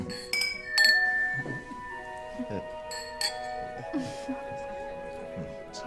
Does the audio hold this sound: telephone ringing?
no